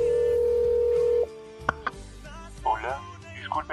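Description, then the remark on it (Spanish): A phone call is dialed on speakerphone: a steady electronic phone tone hums for about a second, then cuts off with a few clicks as the call connects and a man's voice answers through a tinny speakerphone. “marca el teléfono de Naoto, activa el altavoz y de pronto un hombre contesta”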